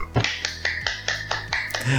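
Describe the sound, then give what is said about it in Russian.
A brief burst of clapping to welcome a guest: about nine sharp, bright claps in a quick, steady rhythm, fairly loud, with no one talking over them. “Да, хлопаем.”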